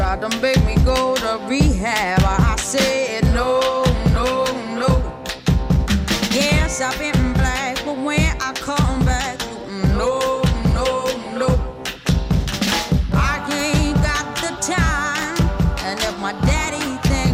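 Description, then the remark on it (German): A 1960s Motown-style soul song plays loud and continuous, with punchy drums, bass, horns and a strong lead vocal over a full, steady band groove, with effects and modern keyboard sounds mixed into the background. “Aber man hört im Hintergrund doch viel, viele Effekte, viele Sounds, äh, Sounds von modernen Keyboards, die da irgendwie reingemischt wurden, um dem doch einen neuen Touch zu verleihen, finde ich.”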